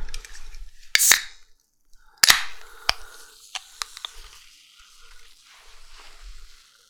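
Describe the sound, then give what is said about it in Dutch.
A can of orange-flavoured soda is cracked open: a couple of sharp metallic clicks, then a hissing burst of escaping gas, followed by faint fizzing and small ticks as the drink settles. “Eerst het blikje openen.”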